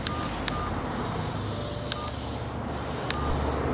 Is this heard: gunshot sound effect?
no